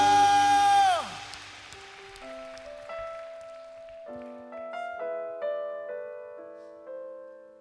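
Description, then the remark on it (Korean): A loud burst of audienceal applause, offered in glory and thanks to the Lord during a church service, lasts about a second and cuts off, followed by soft, sustained keyboard chords playing slowly on their own. “우리의 필요를 채워주실 우리 주님 우리의 결핍을 충만히 채워주실 우리 주님께 여러분 믿으시는 만큼 주님께 영광과 감사의 박수 올려드립시다 할렐루야”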